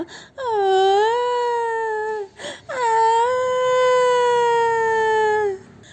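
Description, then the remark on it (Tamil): A voice imitates an elephant wailing with two long, loud, sustained moaning cries, the first rising then holding steady, then a brief pause before a second drawn-out wail. No other talk. “அப்படின்னு அழுதுச்சா ஓ ஓ அப்படின்னு கத்துச்சா சுற்றி இருந்தவங்கெல்லாம் ஒரு வேளை யானைக்கு வலி அதிகமாகிடுச்சோன்னு நினச்சி ரொம்ப வேதனைப்பட்டாங்கண்ணா”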